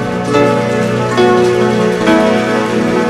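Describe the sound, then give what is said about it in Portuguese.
A crowd claps loudly for the King of Glory, continuously for about three seconds, a dense crackle of many hands layered over sustained keyboard chords that shift a few times underneath. “Aplauda bem forte ao Rei da Glória.”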